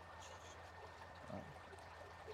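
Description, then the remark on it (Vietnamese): Steady, quiet trickling of flowing water, a continuous soft wash with a faint hum underneath and no voices present. “nên là nó có những cái khoảnh khắc anh em mình ngồi nghe nước chảy ngắm cá như này uống cà phê”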